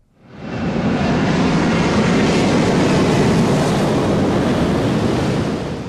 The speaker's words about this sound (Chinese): 詹老师，我们先来听听几段声音，然后我先跟观众听众朋友说声不好意思，这些声音呢，你每天都会听到，但是你听到呢，应该会不太舒服，包括说先来听听什么呢？飞机的声音。